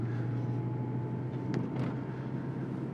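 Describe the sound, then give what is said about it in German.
Steady low rumble of road noise inside a moving car, a constant droning hum with a faint tonal whine and a couple of brief hissy swells, no talking. “Also das ist ja hier mit dem Auto mal schon so laut im Hintergrund”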